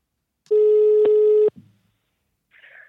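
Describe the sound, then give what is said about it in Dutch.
A single loud, steady telephone ringing tone of a call to Antoine Tolhoek sounds for about a second and then cuts off abruptly, followed by a brief faint rustle and a short, soft, higher-pitched sound. “we hebben ook gebeld met niemand minder dan Antoine Tolhoek.”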